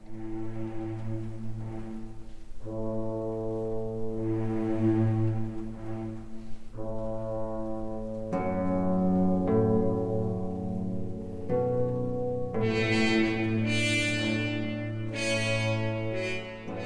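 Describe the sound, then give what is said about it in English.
A recording of the Minnesota Orchestra playing a Ninth Symphony: slow, sustained chords with deep, rich low brass and strings, swelling louder and brighter as the harmonies shift every couple of seconds. No voices. “Can you give me an example where in this Ninth Symphony of this performance with the Minnesota Orchestra, with you conducting, where you followed your heart.”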